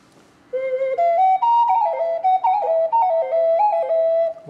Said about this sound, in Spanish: se escucha como un sonido muy normal de ocarina, pero está muy bonito.